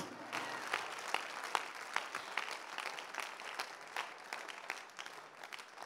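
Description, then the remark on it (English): A church audience clapping for the Lord during a sermon, a dense, steady patter of many hands with a few sharper claps standing out, sustained without pause for several seconds and no voices over it. “Give the Lord a clap of and I'm preaching this morning.”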